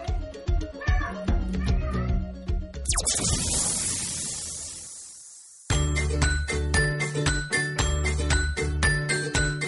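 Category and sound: animal, cat meowing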